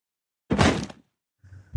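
A diary is thrown down and hits the floor with one loud thud and a short rattling decay, followed a moment later by a softer, duller knock.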